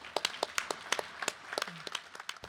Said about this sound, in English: So, this is our time to applaud for this great group.